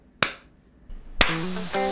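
Two sharp, loud hand claps about a second apart, each a crisp single smack; after the second one, a steady layered tone begins and holds. No voices are heard.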